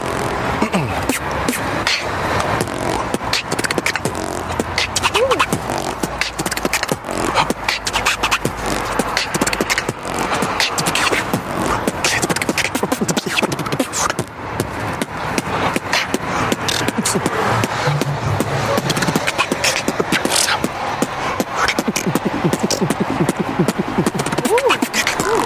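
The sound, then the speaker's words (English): A voice mimics the deep, thumping bass of a car stereo, producing a steady run of low, buzzy pulses with scratchy mouth noises layered over them for about twenty-five seconds. “You know, there's a sound I've been working on. Sounds like a, a bass in a car.”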